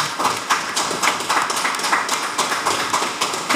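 An audience claps steadily for a few seconds, a dense, fairly loud patter of many hands close by, with no voices over it.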